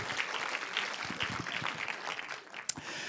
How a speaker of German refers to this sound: Gebt mal allen, die so hint im Hintergrund beteiligt sind, einen Applaus. Vielen Dank dafür.